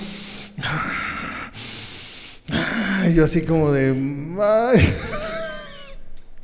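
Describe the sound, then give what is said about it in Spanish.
A voice imitates heavy, labored breathing with loud rasping gasps and drawn-out groaning breaths, following a brief bit of speech. “Y así respirando, así como...”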